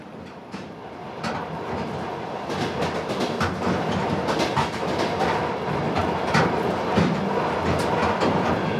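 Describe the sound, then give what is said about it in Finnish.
A nearly empty, completely dark night train bound for Kyiv rolls steadily along the tracks with a constant rumble, punctuated by irregular metallic clicks and clacks from the wheels over rail joints; no one speaks. “Mä oon tässä junassa kolmen muun lisäksi ainoa, joka menee Kiovaan asti.”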